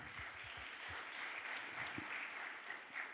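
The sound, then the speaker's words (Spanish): An audience claps steadily, a dense, continuous wash of many hands with no voices, a few deeper thumps near the start adding weight to the sustained applause. “De un aplauso fuerte.”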